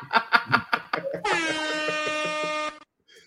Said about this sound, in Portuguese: Ixi, tocou foi uma buzina.